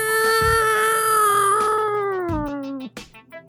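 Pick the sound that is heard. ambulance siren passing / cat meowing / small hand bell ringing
cat meowing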